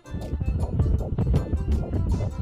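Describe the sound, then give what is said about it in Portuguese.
A baby's fast fetal heartbeat on a doppler monitor during a prenatal checkup with a doctor: rapid, steady whooshing thumps repeating several times a second over a muffled, windy hiss, loud with no voices. “Ai, tão pequenininho, o coração batendo tão rápido.”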